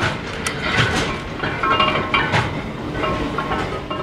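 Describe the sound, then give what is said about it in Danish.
Brickworks machinery at Katrines Minde Teglværk, kneading and forming machinery for the next step toward a fired brick, runs loudly and steadily, a dense mechanical roar with rattling and a few sharp clanks, no voices over it. “vi er gang i maskineriet her på Katrines Minde Teglværk. Det er måske en lidt voldsom støj.”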